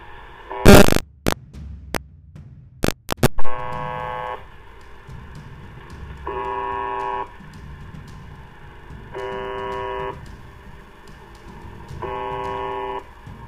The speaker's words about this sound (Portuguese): Segundo o Wikipedia, a UVB 76 é uma estação de rádio de ondas curtas. Ela ficou conhecida entre os ouvintes da rádio como The Buzzer. Isso porque ela transmite um pequeno e monótono sinal, repetindo-se a uma taxa aproximada de 25 tons por minuto,